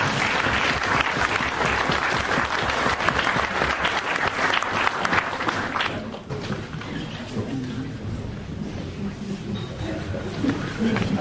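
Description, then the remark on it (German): Audience applause at the end of a talk, a dense, steady clatter of many hands clapping at full strength for about six seconds, then thinning into a softer, lower patter of scattered claps that continues to the end. “Also ich bin jetzt fertig. Applaus”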